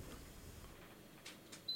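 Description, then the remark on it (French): A faint, steady air conditioner hum drones low in the background, broken by a couple of soft hissing bursts and a brief high-pitched whine at the very end. No one speaks. “voilà, c'est la clim.”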